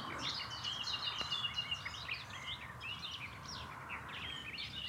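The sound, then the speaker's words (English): A nightingale sings from deep in dense undergrowth, a fast, varied string of whistles, trills and chirps, slightly muffled, with steady background hiss and no talking. “There is one trying to sing his way through, buried deep in the undergrowth. Nightingales are lovers of dense cover.”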